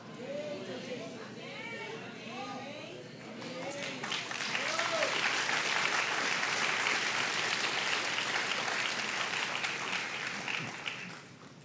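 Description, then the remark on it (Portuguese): An audience bursts into applause, dense overlapping clapping that swells to a steady roar and holds, with crowd voices murmuring underneath at first. “Essas palmas não foram pentecostais.”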